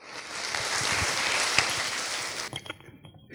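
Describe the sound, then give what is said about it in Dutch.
Warm applause from an audience welcoming a yoga teacher for a short exercise before the break, a dense, steady wash of many hands clapping that holds for a couple of seconds and then quickly fades into a few scattered claps. “Een warm applaus.”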